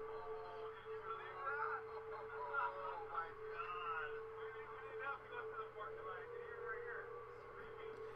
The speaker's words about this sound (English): That's not sound effects added in, my friends. That ominous humming is the sound that you hear when you walk across the Golden Gate Bridge.